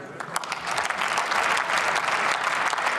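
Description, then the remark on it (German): Sustained applause from a large group in a parliament chamber, following thanks to Defence Minister Christine Lambrecht, a dense, steady patter of many hands clapping at an even loudness throughout, with no one speaking over it. “Jetzt wird viel geklatscht.”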